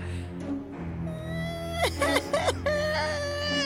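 A child cries after hearing a frightening story, in sustained wavering wails, the pitch breaking and sobbing in the middle before settling into a steady whimpering cry, with no talking over it.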